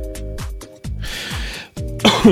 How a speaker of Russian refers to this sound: Простите, я тут все-таки кашляю периодически и не успеваю нажимать при этом на кнопку мьюта.